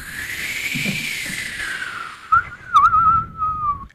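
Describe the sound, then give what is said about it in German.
A person whistles a long, wavering tone that drifts and slides in pitch, imitating the howl of wind through a forest, with a few brief breathy swells and no talking. “Ganz schön windig acht hier.”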